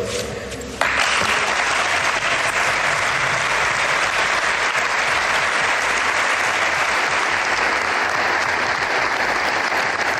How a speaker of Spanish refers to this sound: Karim Benzema fue aplaudido por sus ahora ex compañeros.